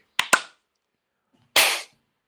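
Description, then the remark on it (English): Two quick, sharp claps, then after a pause a group clapping their hands together once on a "three, two, one" countdown: a loud, slightly smeared burst from many hands at nearly the same moment. No one speaks. “probably you're going to hear as well, you heard already the clapping,”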